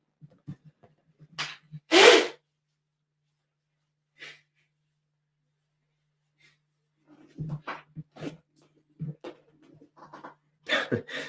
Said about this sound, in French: je vais me retourner, je vais me moucher